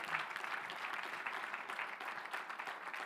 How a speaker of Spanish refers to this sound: Levanta tu manos, Dale un fuerte aplauso al Señor que nos provee.